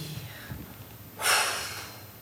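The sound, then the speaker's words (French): A deep breath: a faint quiet intake, then a loud airy rush of breath that swells and slowly fades out, with no talking. “Et puis la respiration.”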